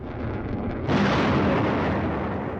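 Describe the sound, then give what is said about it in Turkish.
Heavy artillery fire from Azerbaijani forces against Armenian positions around the city of Fuzuli in Karabakh: a low, continuous rumble gives way to a sudden loud blast that rolls on as a sustained roar, with no voices. “Füze, havan, ağır top atışı ve insansız hava araçlarıyla Ermenistan mevzilerini yerle bir etti.”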